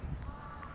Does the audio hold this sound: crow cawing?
yes